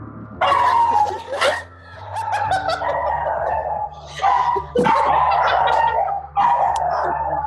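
dog barking

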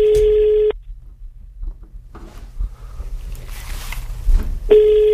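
telephone ringing tone

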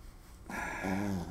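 bulldog snoring

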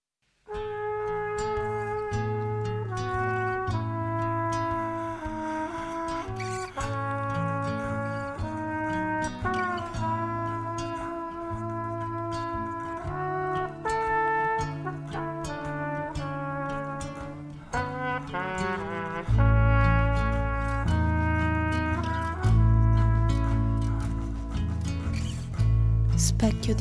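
song starts playing

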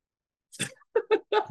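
sipping and gulping water

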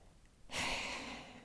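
deep breath drawn in

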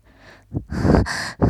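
heavy panting breaths

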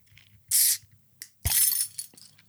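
keys jingling

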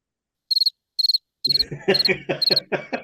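crickets chirping

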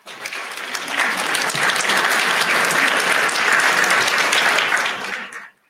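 applause

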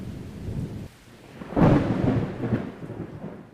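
thunder

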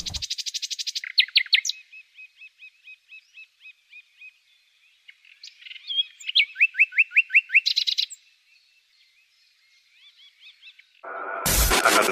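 nightingale song

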